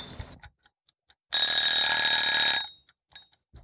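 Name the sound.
alarm clock ringing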